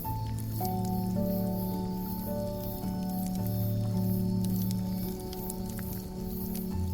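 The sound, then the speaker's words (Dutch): A steady, hissing wood campfire crackles with scattered sharp pops, while a soft, sustained low drone of tones hums underneath throughout. “En breng je aandacht naar het gekraak en het geplof van het vuur.”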